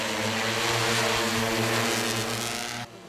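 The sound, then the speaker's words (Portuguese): A drone's propellers buzz loudly and steadily, a dense whirring hum with a constant pitch that cuts off abruptly near the end. No one speaks. It is an incinerator drone, Chinese-made with Brazilian programming, carrying a fuel compartment, used by a utility concessionaire to burn off debris near power towers. “agora, a concessionária vai contar com um apoio especial um drone”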